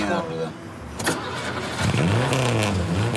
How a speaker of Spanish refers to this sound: ese auto tuvo muchos inconvenientes porque no funcionaba bien, era uno de los de producción y, les costaba un montón arrancarlo y, la escena donde el auto no arranca, que pasa varias veces.